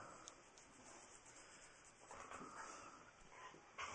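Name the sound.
dog whimpering and barking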